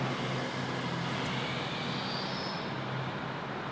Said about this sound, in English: Ooh, a truck's passing overhead.